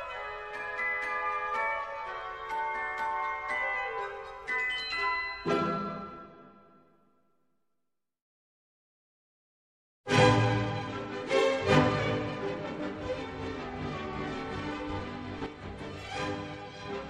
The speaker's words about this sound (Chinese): 现在大家听到的是特雷帕克，也叫俄罗斯舞曲，是一首双拍子的俄罗斯舞曲，情绪欢快奔放，整个舞曲洋溢着兴奋奔放的情绪。